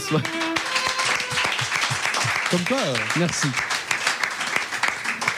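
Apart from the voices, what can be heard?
applause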